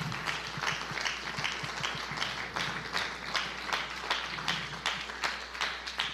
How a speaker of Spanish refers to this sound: Dele una ofrenda de palmas a nuestro buen Dios.